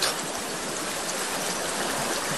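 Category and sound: nature, flowing stream water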